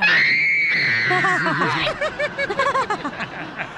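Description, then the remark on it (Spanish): A man, a DJ getting a facial, gives a loud, shrill scream that holds steady for nearly two seconds, then breaks into a rapid series of choppy, wavering cries that sound close to snickering, without background noise. “Escuchamos, escuchamos cómo gritaba el DJ en el, en el, con las chinitas cuando lo llevé al vato para que le hicieran un facial.”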